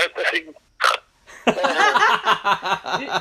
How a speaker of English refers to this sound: did, did you just snort? Did you just snort? Yeah, I totally did. There will be no snorting on the show.